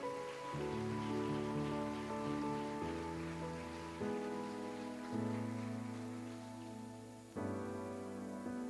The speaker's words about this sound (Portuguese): Aleluia! Aplauda o Senhor. Oh, aleluia!